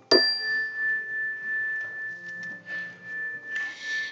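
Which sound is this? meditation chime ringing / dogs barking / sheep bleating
meditation chime ringing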